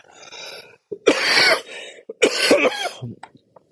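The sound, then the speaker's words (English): A person with asthma coughs in a couple of harsh, wheezy bursts, preceded by a breathy intake and ending with a few smaller rasping catches. No talking. “I warned her beforehand about my coughing, and despite the fact that it's not a contagious thing, it's an asthma thing, I wanted her, you know, to feel comfortable too.”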